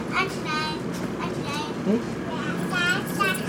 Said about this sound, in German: Der Zug fährt jetzt los.